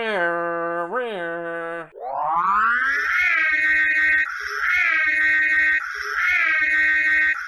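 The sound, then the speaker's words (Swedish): A voice imitates a siren: a low hum with a brief wobble, then a steep upward glide into a loud, high wail that dips and rises again in repeating cycles, with no other sounds. “Du, du, du, eller hur fan gick den sirenen?”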